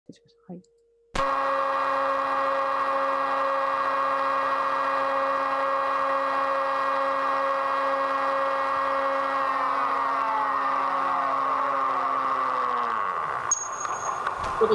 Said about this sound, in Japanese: 今のがあの新海六三五0が通常立てている騒音海の中にこういうあの油圧装置の騒音をまき散らしながら潜ってるっていう状態ですね。こういう音が嫌いな生き物とか逃げていっちゃうかもしれないと思うんですけど